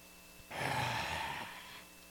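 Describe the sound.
One long, heavy, hissing breath, like a mechanical respirator, lasting just over a second, with no talking around it.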